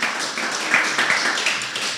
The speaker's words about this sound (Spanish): Un aplauso al Señor. Si lo quieren dar, désenlo.